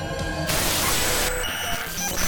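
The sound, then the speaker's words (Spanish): A loud burst of hissing static on TV screens abruptly interrupts a chorus girls' dance routine, filling the sound for about a second before cutting back to tonal, music-like audio, with faint voice-like murmur underneath, giving way to a carousel of images. “Una estática interrumpió la coreografía de unas coristas para darle paso a un carrusel de imágenes”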